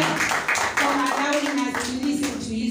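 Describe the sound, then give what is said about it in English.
A crowd at a worship service claps steadily and loudly for a few seconds, dense overlapping applause, with voices and a sustained tone running underneath. “So let's clap hands for this time and opportunity.”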